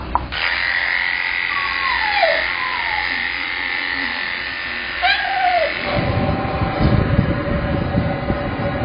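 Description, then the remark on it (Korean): At an animal hospital, a pet groomer's electric clippers hum with a steady high whine as they trim a dog's fur. The dog lets out a few short whimpering cries, then a pet dryer kicks in with a loud, rushing blast of air. “강아지 털 깎는 소리, 드라이기 소리, 강아지 달래주는 소리까지 재밌겠다.”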